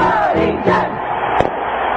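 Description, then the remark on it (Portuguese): Corinthians fans at Morumbi stadium cheer in a loud, steady roar of many voices as the team enters the field, swelling slightly in waves, with one sharp crack cutting through briefly near the end. “E o delírio e a festa de sempre! Já acostumada, fiel torcida corintiana, do time.”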